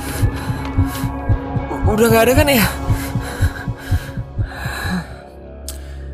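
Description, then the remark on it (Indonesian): A fast, steady heartbeat thumps low and loud throughout, with a sharp gasp and breathy voice rising over it midway while someone speaks briefly. “Jantungnya berdetak semakin kencang.”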